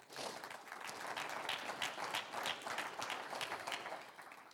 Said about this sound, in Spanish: un aplauso al Señor.